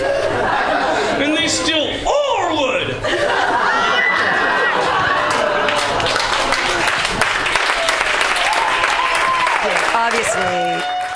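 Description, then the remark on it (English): An audience claps steadily for about eleven seconds, a dense, loud patter of many hands, mixed with laughter, cheers and scattered voices calling out over it. “There's the clap break.”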